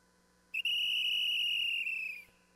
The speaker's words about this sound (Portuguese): Eu cheguei tocando o apito, chamando pra reunir,